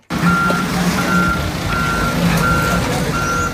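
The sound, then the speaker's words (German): Heavy machinery rumbles steadily as a yellow excavator crashes into a metres-high pile of flood rubble on railway tracks near a small station in the Eifel, with a regular series of five evenly spaced reversing beeps repeating over the loud, continuous engine drone. No one speaks. “Der gelbe Schaufelbacker schiebt sich krachend in den meterhohen Schuttberg.”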